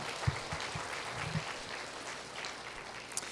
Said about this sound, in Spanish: Dele un aplauso al Señor por su palabra.